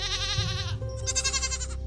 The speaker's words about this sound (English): The nanny and billy goats chew cud in the distance,